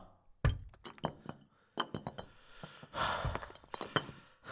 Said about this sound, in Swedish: Fast den där järnporten tar jag mig aldrig igenom. Vi får gå igenom tegelväggen. Fram med spetten nu och sätt igång. Vi har inte tid att slösa.